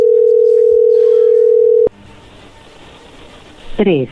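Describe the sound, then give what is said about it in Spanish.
A dialed phone call: a steady, single-pitched phone line tone holds for about two seconds, then cuts off abruptly as the call drops to voicemail, leaving faint line hiss and a brief voice at the end. “Como que mandó la llamada al buzón.”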